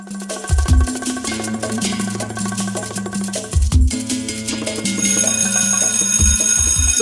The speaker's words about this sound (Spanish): el timbre y vamos al recreo.